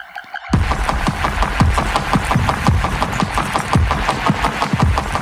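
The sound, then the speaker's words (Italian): An eruption of the Stromboli volcano rumbles steadily, its deep low roar pulsing in rapid, regular throbs about twice a second, loud and continuous after a brief quiet start, with no voices. “mi dice non pensare di provare a portare a casa un album su suoni della natura senza mettere i vulcani, i vulcani sono il ritmo della terra e quindi anche lui mi regala eh, i rumori di un'eruzione dello stromboli che, che registra di persone.”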